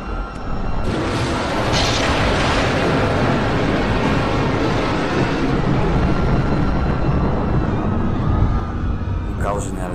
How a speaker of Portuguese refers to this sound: A queda é inevitável. Essas foram as suas últimas palavras, antes do avião sofrer um forte tremor e desviar o curso, destruindo grande parte da carapaça da nave.